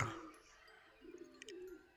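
A pigeon coos softly, one low, drawn-out warbling call in the second half, with faint high bird chirps in the background and no voices.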